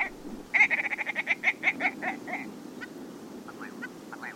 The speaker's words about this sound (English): Willow ptarmigan. Uh huh. to me, this has one of the most comical calls of all the birds of North America. I, what, it sounds like some somebody trying to uh, make little sounds with their uh, th- uh, throat or the back of their throat.